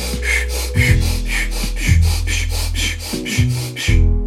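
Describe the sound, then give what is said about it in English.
Quick, rhythmic breaths huff in and out about three times per second, steady throughout, over a soft, sustained musical drone, during a controlled breathing exercise with the pace built up as quick as possible. “Build the pace once more as quick as you can.”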